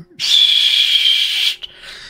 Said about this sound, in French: 5h30, vous entendez euh, ce, terrible sifflet qui vous revient encore en tête et, aux oreilles.